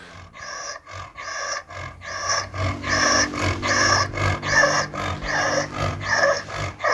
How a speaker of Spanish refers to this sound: Eh, la respiración. Es para que os hagáis una idea de, lo que es eh, la molestia que tiene el animal.